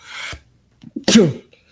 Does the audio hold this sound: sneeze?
yes